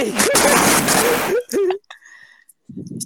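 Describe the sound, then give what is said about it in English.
A loud burst of fizzy spraying and splashing from a Sprite soda bottle overflowing as it is opened on a bed without being shaken, lasting over a second while a voice yelps and cries out over it, then it drops to brief quieter rustles and a low murmur. “the Sprite bottle that I tried to open on my bed without even shaking it and then it fucking overflowed for no fucking reason.”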